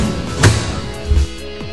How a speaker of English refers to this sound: So, first of all, we break into your house. Then, close the door behind us.